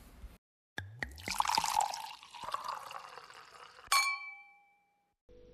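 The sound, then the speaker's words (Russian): A drink is poured into a glass for about three seconds for a toast, the gurgle rising in pitch as it fills. A single bright clink of glass follows and rings briefly. No voices. “поднимаем за нее бокальчик и вперед.”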